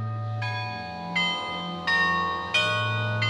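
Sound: carillon bells playing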